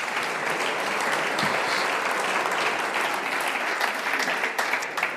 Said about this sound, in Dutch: Heel groot applaus.